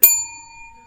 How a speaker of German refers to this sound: Gut, das war die Klingel.